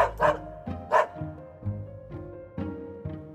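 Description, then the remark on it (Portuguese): A short-eared dog barks repeatedly, about six or seven sharp barks at an uneven pace, fairly loud, with a steady tonal hum beneath them. “Orelha de paca é bonitinha e a desse cachorro é bem curtinha.”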